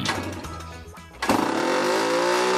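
Small two-stroke engines buzz and rev nearby, a sharp throttle burst midway giving way to a sustained, rising high-pitched whine as the mopeds accelerate.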